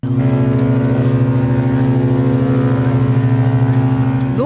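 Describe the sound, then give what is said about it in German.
The engine of the cruise ship Queen Mary 2, arriving in Hamburg harbour for the first time in summer 2004, drones steadily and loudly: a deep rumbling hum with a pulsing throb and layered low tones, continuous throughout with no talking. “Im Sommer 2004 läuft die Queen Mary II zum ersten Mal Hamburg an.”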